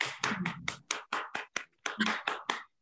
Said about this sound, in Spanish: Un aplauso